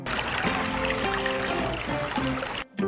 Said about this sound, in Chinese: 在途中遇到了一条小河，挡住了去路，河水哗哗地流着。